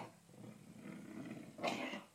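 A pet named Pixie coughs: a low, rasping, throaty rumble that ends in one sharper, harsher hacking burst. No one speaks.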